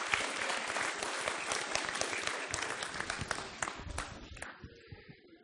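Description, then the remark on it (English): A crowd claps steadily in a dense burst of applause for people who came out to help the speaker, carrying for several seconds, then thinning out and fading toward the end. “Get a round of applause for coming out and uh, helping me with that.”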